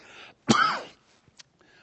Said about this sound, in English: got the cough.